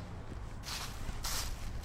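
Two scuffing footsteps, roughly half a second apart, crunch across a hard surface as someone walks further onto a bridge, against a steady low rumble of outdoor background noise; no one speaks.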